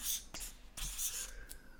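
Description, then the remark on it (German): Pens scratch across paper in quick strokes as quiz players write their answers, with sharp little scribbling bursts and scraping hiss, no voices present. “5, 4, 3, 2, 1 und Stifte weg.”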